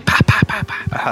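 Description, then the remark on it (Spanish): A voice imitates thumping on a watermelon when buying one, with a quick run of short, punchy 'pa' syllables, fairly loud, repeated about half a dozen times in a steady rhythm. “Porque yo para, comprar una sandía solo le pego así porque me gusta cómo suena así”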